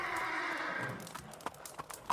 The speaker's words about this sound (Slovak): Po diálnici sa odrazu rúti zdivočený kôň. Ťahá za sebou drevený voz. Ten nadskočí a prevrhne sa. Kôň sa splaší a zahrabe prednými nohami vo vzduchu.